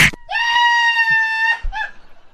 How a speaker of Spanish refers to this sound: ya no tienes que gritar, güey, ya. Sí, ya. Ay, no me andes gritando.